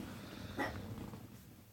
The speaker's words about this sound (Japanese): 犬も吠えたし